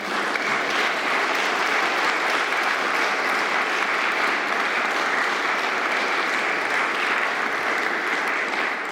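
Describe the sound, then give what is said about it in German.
An audience applauds in the large Aula (main hall), a dense, steady patter of many clapping hands that holds at an even, fairly loud level throughout, with no voices standing out. “aber von daher ganz herzlichen Dank Ihnen und Ihrem Organisationsbetrieb und ein bisschen Beifall Beifall wäre ganz schön.”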